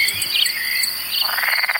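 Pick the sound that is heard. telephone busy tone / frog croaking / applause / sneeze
frog croaking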